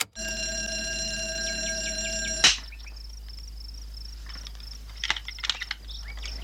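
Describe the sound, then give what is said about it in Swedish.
In a film scene, a doorbell broken by Peter Sellers, dressed as an electrician, rings in a steady, harsh buzzing tone for a couple of seconds, then cuts off with a sharp clack, leaving a faint high whine and a few scattered light clicks. “Den här scenen när Peter Sellers utklädd till elektriker har sönder en ringklocka.”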